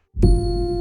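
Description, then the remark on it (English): A single bright, layered chime, built from three elements meant to sound as one (a processed meditation-style chime, a piano hit and rising tones), lands with a struck piano-like attack, then rings on as sustained, shimmering tones, loud, with no voices. “So that plus the piano hit plus the rising tones gives you this effect.”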